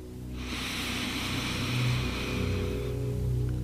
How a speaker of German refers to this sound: Mit dieser Gewissheit atmen wir jetzt zusammen noch einmal tief durch die Nase ein. Die vier Sekunden nehmen wir nochmal mit für uns.